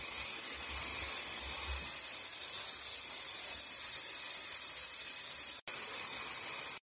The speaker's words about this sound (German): Okay, hier ein bisschen. So Fasching-Spray.